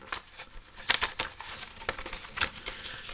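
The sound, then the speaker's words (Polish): Crisp plastic crackling and clicking as a reusable blister pack is pried open, followed by papers (a warranty card and a multilingual instruction manual) being shuffled, with several sharp snaps over a steady rustle, no voices. “Otwieramy blister, jak powiedziałem, jest on wielorazowy. Otrzymujemy na sam początek papiery.”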